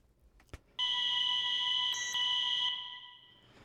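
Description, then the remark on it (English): A bright, sustained Juno synth tone holds one steady pitch for about two seconds, briefly jumping up an octave partway through as the octave button is flicked, then fades out; a sharp click comes just before it starts. “So there's a kind of Juno top part.”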